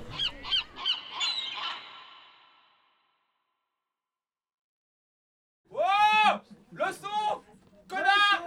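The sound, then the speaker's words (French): A cinema audience imitates seals and seagulls: a burst of honking barks that fades into silence, then several loud, squawking gull-like cries in quick succession. “Il y a les portes qui grincent, il y a les portes tout court, il y a les, phoques, euh, il y a les mouettes, euh, il y a tout quoi.”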